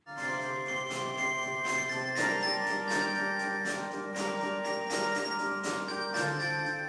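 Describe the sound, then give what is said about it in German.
Carillon bells play a rock melody, a steady sequence of struck notes whose rich, ringing overtones blend and sustain into one another, loud and continuous with no voices. “Aber für … sind die Glocken nun doch ein wenig unpassend.”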